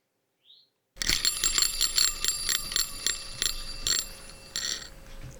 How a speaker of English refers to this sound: Okay. Is it you spinning the wheel of a pizza cutter that's a little bit more rickety?